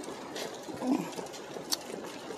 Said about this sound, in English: Well, it's a rainy day in Jacksonville, Florida.